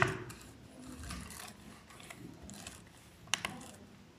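A braille display's pins refresh across all cells at once as the user scrolls within a book, with a soft, close mechanical rattle, then a crisp double click near the end. Quiet, with no voices.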